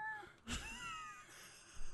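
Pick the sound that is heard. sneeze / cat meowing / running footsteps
cat meowing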